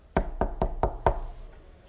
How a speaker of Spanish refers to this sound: Cuando llegó ahí, tocó la puerta.